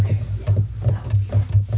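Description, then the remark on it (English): A garage door grinds along with a low, steady mechanical rumble, pulsing in a regular rhythm as the motor drives it. The sound is moderately loud and continuous, and no one speaks. “Garage door.”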